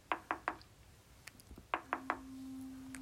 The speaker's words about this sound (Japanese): そんなある日、えー、夕飯食べ終わって、えー、ちょっとみんなで家族でくつろいでいたら突然ノックがされたらしいんですね。